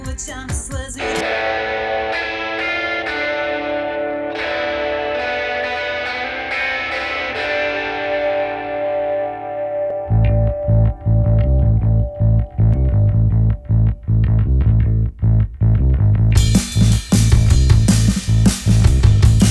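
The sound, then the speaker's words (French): Avant-garde post-punk, art-punk music by a London band, with heavily distorted, effects-laden guitars that sustain in a droning wash before pounding drums and thick bass crash in halfway, building into a loud, dense, abrasive groove. “C'est du post-punk avant-gardiste, euh, art punk, un peu dans la mouvance … et tous ces groupes actuels qui déboulent sur le marché.”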